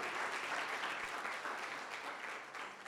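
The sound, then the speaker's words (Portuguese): A church audience at a service in Taboão da Serra, Brazil, claps steadily in a sustained, dense burst of applause at an even level for the whole stretch, with no voices standing out. “Aplauda Jesus pela vida da Cibele”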